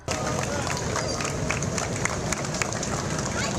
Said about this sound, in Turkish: Stadyumdaki tören sonrası cenaze Santos sokaklarında kortej eşliğinde dolaştırıldı. Güzergah boyunca toplanan hayranları siyah inciyi son yolculuğuna alkışlarla uğurladı.